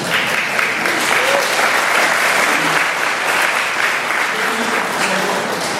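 Steady audience applause, a dense wash of many hands clapping at even loudness for several seconds, with faint voices mixed into the crowd noise.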